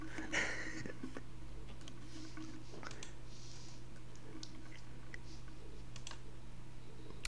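Irregular bursts of computer keyboard typing, light clicking keystrokes with uneven pauses, set against a steady low electrical hum. No one speaks.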